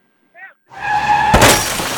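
Tires screech in a loud, sustained skid, then a sudden crash of impact and shattering glass, with crunching debris trailing off afterward. No one speaks.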